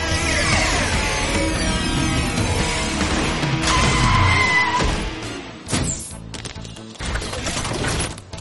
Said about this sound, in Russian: Не волнуйтесь, суперспасатели вот-вот будут здесь. Смотрите, вот их автобус.